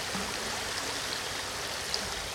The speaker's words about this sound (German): Jetzt kann ich es mal raushalten in den Bach. Jetzt bin ich ein bisschen hinter dem Mikrofon.